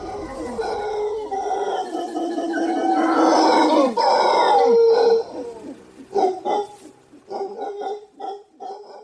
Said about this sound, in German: das war der Brüllaffe, der definitiv nicht zu überhören ist